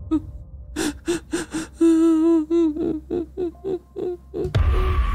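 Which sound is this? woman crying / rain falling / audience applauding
woman crying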